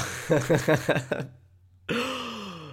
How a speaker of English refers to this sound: that wasn't a cough to be like, I'm going to say the name. That was a cough, like, I have fucking phlegm in my throat.